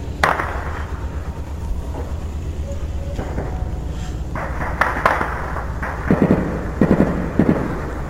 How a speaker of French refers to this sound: Là, vous venez d'entendre ces premiers coups de feu enregistrés par un civil au camp Sangoulé, la Misana, à Gongouin, dans l'est du pays.